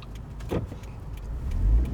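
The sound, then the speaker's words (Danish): A car in traffic, its low engine and road rumble building steadily and swelling loudest near the end, with a brief whooshing burst early on. No one speaks. “Jeg hader, når jeg holder bag med folk, der er bange for at bruge deres biler.”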